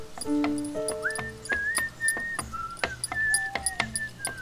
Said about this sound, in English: Ah, I see you're singing to yourself again, as you tend to do when you're frightened. Whistling not singing, there is a difference.